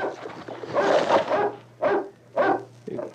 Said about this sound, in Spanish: Ese perro trae algo. Está ladrando como si quisiera llevarnos más delante.